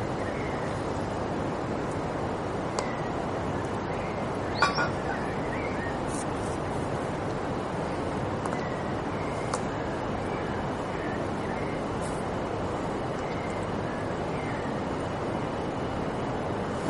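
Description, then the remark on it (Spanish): A steady, full-bodied rush of flowing river water fills the scene without pause, with a few brief faint chirps and a sharp click standing out above the continuous wash. “A lo mejor un poquito más cerca es mejor, vente tú, para acá, porque si no, no se oye bien con el río.”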